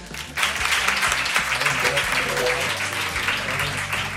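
An audience breaks into applause after a brief quiet moment, a dense, steady wash of many hands clapping that holds at an even loudness for several seconds over a faint low hum.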